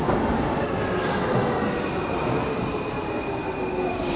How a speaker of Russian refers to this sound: Мы сейчас проверим. Едет как раз поезд. Посмотрим, сравним сейчас. Проверим уровень шума.